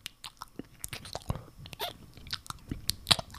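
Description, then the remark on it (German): Wet, smacking mouth noises: a rapid, irregular series of slurping clicks and lip smacks imitating a tongue kiss, with no talking. “Warte, dann mache ich noch schnell so einen Zungenkuss.”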